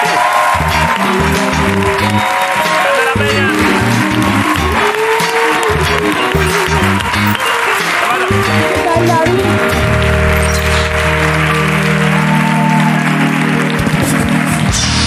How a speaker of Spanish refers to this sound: Vale, pues un aplauso para Candela Peña, por favor, que está por aquí.